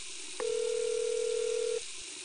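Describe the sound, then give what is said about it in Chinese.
A single steady telephone tone as a call is dialed in a first-floor washroom: mid-pitched and unbroken, it sounds clearly for about a second and a half over a constant background hiss, then cuts off abruptly. No one speaks. “开着水龙头，他把手伸进口袋里，闭上眼，另一只手拨通电话。”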